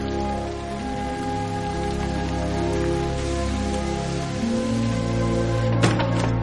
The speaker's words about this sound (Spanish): Otro día llueve.